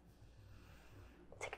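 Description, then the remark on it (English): Near the end, there is a quick, sharp sniff through one nostril from an inhaler placed just inside it while the other nostril is closed. A brief airy rush follows a stretch of quiet low rumble, with nobody speaking. “good sniff, and it's just like whoosh, right on up there.”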